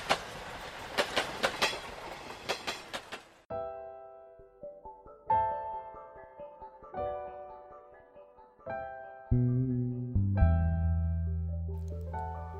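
A Kintetsu Hinotori, Kintetsu's new Nagoya–Osaka limited express train, runs by with a loud, rhythmic clickety-clack for about three seconds, then gives way to a sequence of clear, sustained tonal notes like a chime or short melody, with no talking.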